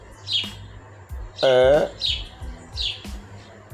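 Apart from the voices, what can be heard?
birds chirping outdoors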